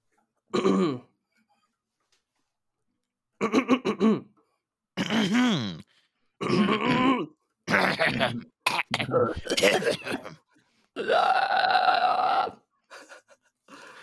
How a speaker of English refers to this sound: All right. Everyone's throat cleared? Yeah. Okay.